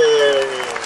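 A burst of steady crowd applause, dense and fairly loud, with a sustained vocal tone riding over the clapping for the first half before the sound eases slightly.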